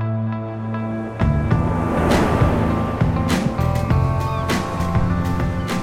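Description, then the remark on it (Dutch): A zodiac's outboard engine drones steadily, revving higher after a moment, with water rushing and sharp slaps as the hull bounces over waves on the Mediterranean Sea, sailing away from Corsica. “zijn opgestapt op een zodiac. En we varen weg van Corsica.”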